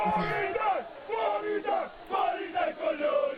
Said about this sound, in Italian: Siamo in possesso di una registrazione esclusiva della reazione dello spogliatoio AEW alla notizia del licenziamento di CM Punk.